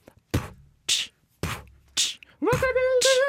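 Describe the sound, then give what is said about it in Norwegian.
A solo mouth beat: four evenly spaced hits alternating punchy kick-like thumps and hissy snare-like bursts, then a held sung note with one more snare-like burst, forming a short improvised jingle. “Jeg har ikke noen vignett, men vi kan improvisere en eh, kort en. Eh, som heter clickbait. Skal jeg sånn bare beat”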